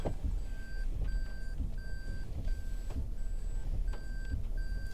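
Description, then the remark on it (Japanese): A car engine rumbles as the vehicle maneuvers aside to make way for an oncoming car on a narrow, winding single-lane road, with a steady series of short, high electronic beeps repeating about every second over the low drone. No one speaks. “ちょっと対向車が来たので避けましたはいもう一回いきますまた対向車来るかもしれませんねここは一車線でですねすれ違うことが絶対できないしかも曲がりにくれた道なんですね”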